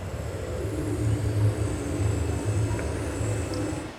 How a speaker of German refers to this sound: And then again, kind of hearing that sound pollution, here's boat propeller.